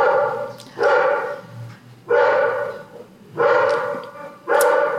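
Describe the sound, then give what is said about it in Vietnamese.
A dog barks repeatedly in a steady rhythm, four loud, sustained bursts spaced about a second apart, with no talking over them. “đợi chó sủa xong”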